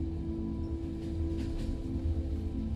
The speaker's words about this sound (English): Murmurs and conversations carry throughout the room, with different dialects and languages coming together with varying rhythms and melodies. Animated chatter complements the persistent sounds of a train in motion